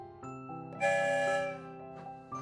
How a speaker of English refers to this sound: One whistle, we're on our way.